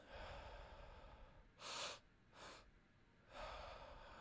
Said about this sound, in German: Wir atmen also mit dem ersten Atemzug durch den Mund ein, dann mit dem zweiten Atemzug in die Brust und dann atmen wir einfach sanft aus. Bauch, Brust, ausatmen.